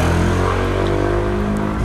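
Steady, loud engine rumble from nearby traffic, with motorcycles and cars droning past in a continuous low hum that fills the whole stretch without any voices.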